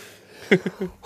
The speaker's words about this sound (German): Gesundheit